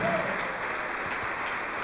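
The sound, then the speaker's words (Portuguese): A church audience applauds, a dense, steady wash of many hands clapping at even loudness across the whole stretch, with a faint voice mixed into the noise. “Oh glória, vamos aplaudir.”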